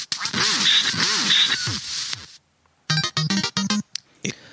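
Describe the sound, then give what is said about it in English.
A duck quacking sound effect, a 'row of ducks' played for a 2222 boost: a burst of raspy, overlapping quacks for about two seconds, a short pause, then a quick run of sharp, clipped quacks, loud. “Carve hat gives a row of ducks 2222 uh, through CurioCaster.”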